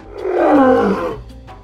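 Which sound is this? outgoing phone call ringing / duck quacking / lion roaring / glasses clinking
lion roaring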